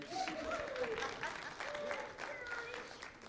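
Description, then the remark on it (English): A church audience at Home Church applauds the choir on a foggy morning, a dense steady patter of many hands clapping at an even loudness for a few seconds, with some voices faintly mixed in beneath it. “Let's give the choir one more round of applause.”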